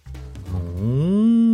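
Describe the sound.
A single drawn-out moo, likely a voice imitating a cow, made for the story character George when he is told to bark: it starts low and rough, then rises into a steady, louder harmonic tone lasting over a second.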